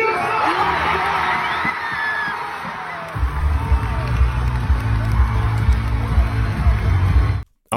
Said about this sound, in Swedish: Eh, Bianca gick bland annat ut till folkets jubel på Avicii Arena där hon skulle hålla något anförande det var fullt med folk i veckan. Eh, vi kan väl lyssna på det. Här kommer in Bianca Ingrosso!